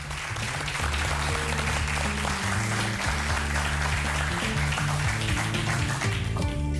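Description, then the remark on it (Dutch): A crowd breaks into loud, sustained applause for the verdict of judge Frank Visser, filling the whole stretch, with a low musical tune playing steadily beneath the clapping. “En ik wil het graag ook één keer gezegd hebben mag ik een groot applaus voor de uitspraak van meester Frank Visser.”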